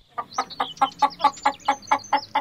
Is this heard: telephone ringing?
no